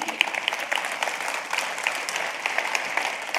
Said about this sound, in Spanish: El aplauso es para Dios, ¿verdad?